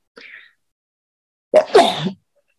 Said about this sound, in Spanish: Voy a estornudar.